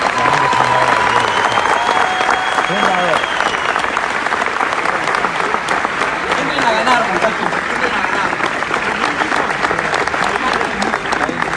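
A large audience applauds loudly and steadily, with scattered cheers and whistles rising over the dense clapping throughout, welcoming the organization's 'diamond' member at an organization gathering.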